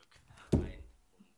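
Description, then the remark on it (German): A mobile phone drops and hits the floor with a single sharp clatter and thud that rings out briefly before fading into near silence. “Moment, wir fangen nochmal neu, an. mir ist das Handy runtergefallen.”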